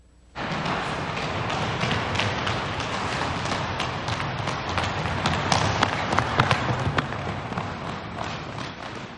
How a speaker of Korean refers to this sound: 고요한 루브르 박물관 안 손을 잡고 나란히 달리는 세 사람의 발자국 소리만 들립니다.